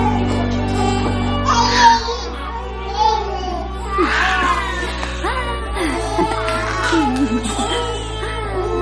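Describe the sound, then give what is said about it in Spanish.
Several babies babble, coo and whimper in short bursts as they play with some nuns in another room, their high wavering cries overlapping over a steady low hum, with occasional soft adult voices mixed in. “En otra sala juegan los bebés con algunas monjas.”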